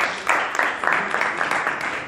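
Audience applause for a woman who has just come forward, a survivor of colon cancer: a sustained, dense wash of many hands clapping at a steady level for about two seconds, bright and hissy with no voices standing out.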